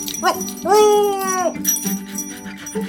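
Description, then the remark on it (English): A big orange dog named Senator Something lets out a short yip, then a long, drawn-out whimper that sags in pitch, followed by a brief bark near the end. “I get some help from a big orange dog named Senator Something.”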